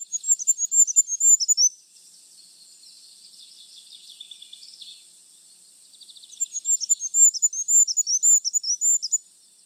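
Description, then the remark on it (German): A goldcrest's thin, very high-pitched song: rapid trilling phrases at the start and again near the end, separated by a softer high twittering, clear, with no talking. “Und ist jetzt nicht mal selten, aber es ist eben so unauffällig und hat ganz einen zarten Gesang, den die meisten Leute überhören.”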